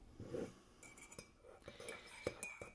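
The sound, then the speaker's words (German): Coffee cups clink together in a toast, several sharp ceramic knocks spread over a few seconds, one leaving a faint high ring, with soft handling and rustling between the taps. “So, zum Wohl, Prost, Kaffee und ja.”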